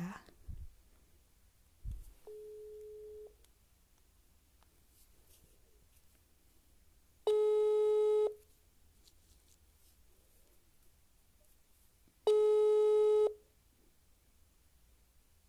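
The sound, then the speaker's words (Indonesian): A phone ringback tone on an outgoing call: a short quiet beep, then two longer, louder tones spaced about five seconds apart, with faint background noise between them. “daripada bacot kita telepon aja aku sih udah janjian semoga diangkat ya”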